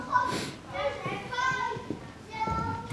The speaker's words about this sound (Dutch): En bijzonder, dat is het bedrijf wat kinderdagverblijf en buitenschoolse opvang faciliteert. En dat horen wij ook op de achtergrond. Ja, de BSO.